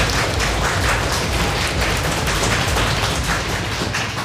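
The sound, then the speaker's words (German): Steady, dense applause from a school audience at the Johann Heinrich Pestalozzi Gymnasium in Stadtroda, opening a special edition of the media magazine Tweenscreen, many hands clapping at once in a continuous crackling roar that holds at an even, fairly loud level without a break. “Ihr hört es, der Applaus kündigt es an.”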